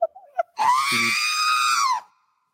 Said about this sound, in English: the scream that's in every movie? Yeah. The Wilhelm scream